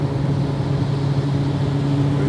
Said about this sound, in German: Es ist nass. Äh, überall Sprühnebel und ich muss hier mal gerade einen LKW überholen